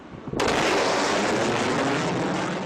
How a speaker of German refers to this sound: Revolutionär am X-59 ist auch etwas, was man nicht wahrnehmen kann. Der typische Knall, die Druckwelle, die Überschallflugzeuge erzeugen.